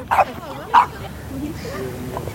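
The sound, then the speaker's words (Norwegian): A large ridgeback dog gives two short, sharp barks, about half a second apart, followed by a quieter stretch of low background murmur. “Bildene skal tas med en stor hund av typen ridgeback.”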